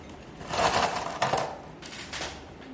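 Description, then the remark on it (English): Ice cubes for a Negroni clink and rattle into a glass in a dense burst lasting about a second, followed by a shorter, quieter second rattle. No one speaks. “So I just have this glass with ice.”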